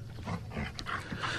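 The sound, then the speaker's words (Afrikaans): A small dog named Russie, with a shiny black coat, yaps in quick, repeated bursts, sharp, barking over and over without pause and with no voices. “Hy is klein en hy het 'n blink swart pels. Hy kef kef aan mekaar en 'n hap ja in die Engels as jy nie oppas nie en wanneer jy dit die minste verwag.”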